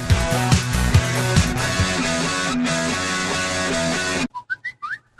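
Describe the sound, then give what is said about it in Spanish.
Loud, busy radio music cuts out abruptly, followed by a short series of bright whistled notes rising and sliding like a phone notification tone, each brief with small gaps between them, marking the start of an advertising break. “No, no es tu teléfono, es el inicio del espacio publicitario.”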